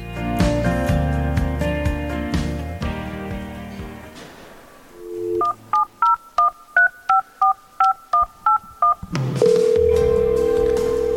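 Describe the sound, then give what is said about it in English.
After music fades, a brief telephone dial tone sounds, then about ten quick keypad beeps are dialed in a steady rhythm, followed by a loud sustained electronic phone tone, introducing the radio call-in show Straight Talk. No one speaks. “You heard the dial tone.”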